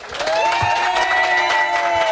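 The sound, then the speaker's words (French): Studio audience applause welcoming a guest on the show Room Service on Fréquence Plus: a dense, steady clatter of clapping mixed with cheering and a sustained rising tone, loud and even for about two seconds with no talking. “Applaudissements”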